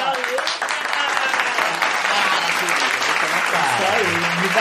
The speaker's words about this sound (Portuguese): palmas pra elas que palmas.